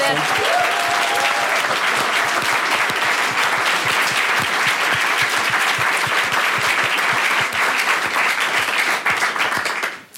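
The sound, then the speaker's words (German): Sustained audience applause, a dense wash of many hands clapping at a steady loud level for about ten seconds before cutting off abruptly at the end. “Äh, ich finde, das ist ein großer ja, Applaus für Applaus”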